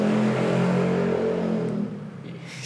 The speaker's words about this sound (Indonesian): karena ada motor lewat tuh gila tuh